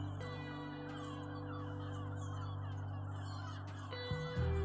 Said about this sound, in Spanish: Escucha aves marinas que sobrevuelan la hermosa bahía.